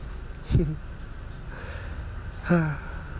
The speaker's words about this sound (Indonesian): di sini sore hari pukul 5.33 dan terdengar suara mobil agak berisik ya bodo amat kayak lagi ngestim mobilnya semoga aja nggak rusak ya